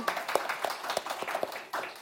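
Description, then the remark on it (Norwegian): A small group applauding, with quick irregular claps blending into a steady patter, heard on its own without talking. “Det er applaus, det.”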